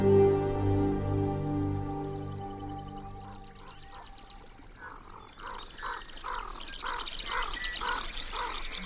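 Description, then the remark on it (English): A steady low hum fades out, giving way to a lively morning chorus of birds near a watering hole on a western prairie, recorded by Lang Elliott. Rhythmic, repeated nasal calls sound over fainter high trills, building toward the end. “Lang Elliott captured these voices one morning near a watering hole on a western prairie.”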